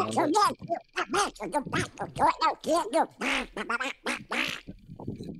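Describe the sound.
A voice does a raspy, quacking Donald Duck impression, babbling in rapid bursts of garbled duck-like speech for several seconds, fairly loud.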